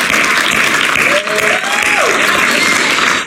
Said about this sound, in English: Somebody give God a hand clap of praise in this house.